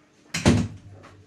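A door being opened to let someone in: a sudden knock-like clunk of the latch and hinge, a brief low rumble as it swings, then a faint softer click about half a second later.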